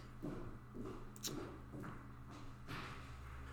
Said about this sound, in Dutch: Wie hoor ik stappen? Mijn, eh, mijn huisgenoot.